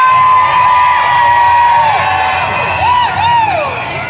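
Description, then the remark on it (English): A street crowd cheers loudly and without pause, a dense wash of voices shot through with high whoops and swooping, rising-and-falling shrieks. “Something's happening at the front. We, we don't know. We're so far down. We don't know what's happening. Following the crowd.”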